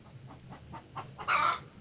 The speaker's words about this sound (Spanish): Me encanta ese cacareo de las gallinas y cómo canta el gallo.